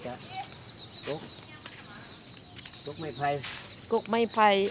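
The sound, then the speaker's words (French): Birds call steadily outdoors, with a continuous high chirping in the background and a few louder, nearby clucking, fowl-like calls that come in short bursts toward the end. “Et d'ailleurs, on entend le, bruit des, oiseaux tous les, quasiment toute la journée.”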